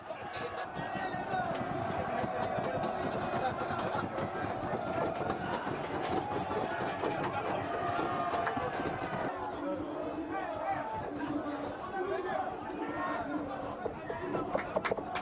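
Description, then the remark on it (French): A dense, loud crowd of Lille football supporters cheers and shouts nonstop around the arriving Lille team bus returning to Luchin, many voices blending into one sustained roar with no pauses. “Depuis l'intérieur du bus lillois, les joueurs, Christophe Galtier et son staff, ont vu la joie de leurs supporters.”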